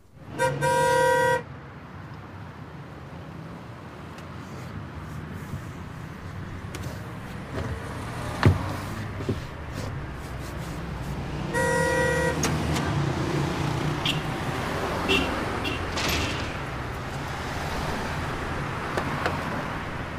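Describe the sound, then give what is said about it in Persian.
A car horn honks twice, each a loud, brassy blast about a second long, the second coming roughly ten seconds after the first, over a steady low rumble of engine and street noise. “نیم ساعت زودتر از همه آماده شدی نشستی اینجا دست رو بوق بر نمیداری”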